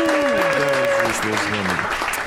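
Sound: applause sound effect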